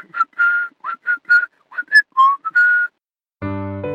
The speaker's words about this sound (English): That was a reconstruction of the first live musical performance from space, Jingle Bells.